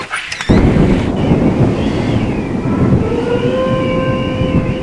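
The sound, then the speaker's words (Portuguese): After a brief quiet moment, a loud, deep rumble of thunder rolls in and keeps booming steadily, with faint high whistling tones drifting above the roar; a torrential storm approaching a quiet town, heard through an opened window. “achei que não teríamos luzes de movimentos repentinos no céu esta noite por causa da tempestade”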